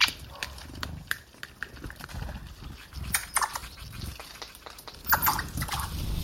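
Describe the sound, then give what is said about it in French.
A red squirrel huffs and whines in a rapid, uneven string of short, breathy bursts and squeaky cries, fairly loud, while quarreling with a woodpecker over a nut, with no one speaking. “L'écureuil souffle, chouine, invective.”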